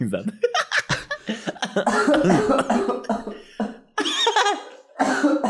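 A burst of loud coughing mixed with hard, wheezing laughter, a rapid string of short hacks at first, then longer strained coughs and breathless laughing fits with brief pauses between.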